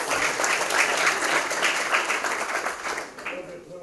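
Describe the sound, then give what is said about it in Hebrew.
An audience at an evening talk applauds steadily for a person who has just asked a question, a dense crackle of many hands clapping at once that holds for several seconds before thinning out slightly toward the end. “מגיע לו כפיים, לא?”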